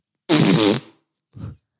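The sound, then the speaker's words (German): A loud, wet, sputtering fart-like noise made by pressing against an arm, lasting about half a second, followed by a shorter, softer puff, made as an imitated fart in a challenge for the most realistic fart sound. No talking. “Den realistischsten Furz-Sound.”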